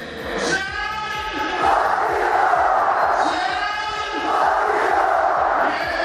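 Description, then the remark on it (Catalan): At a football match in Gliwice, Poland, a stadium announcer's amplified voice booms out a player's name as the match begins, and a huge crowd of fans roars back in unison, the call-and-response repeating twice in a reverberant, loud arena. “Fixa't com l'anuncien per megafonia quan comença el partit i com respon l'afició.”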